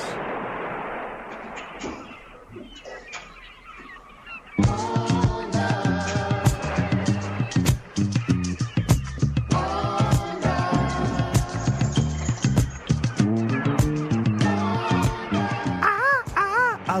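A Brazilian soul music track plays loudly and steadily after a few seconds of quieter, hazy noise, with a full band sound and a melodic singing voice rising near the end.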